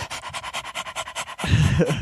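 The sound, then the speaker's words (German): A person mimics a panting dog with a quick, steady run of about a dozen breathy huffs, then breaks into a louder, rougher voiced sound. “Und nicht wie so ein Hund die ganze Zeit so”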